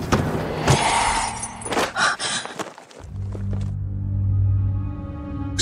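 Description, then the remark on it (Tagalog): A picture frame falls from a TV rack at home: a cluster of sharp, bright crashes and clattering thuds as it hits the floor and its glass breaks, then a low, steady droning hum that lingers after the impacts fade. “Tiningnan namin ang basag na picture frame.”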